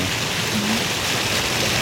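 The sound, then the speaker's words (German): A steady, dense hiss of rushing water that sounds just like heavy rain, loud and constant throughout with no breaks and no voices. “Und jetzt hat es eine Zeit lang ist es voll, in den Regen und dann geht es wieder in, Wellen, in die Wellen über.”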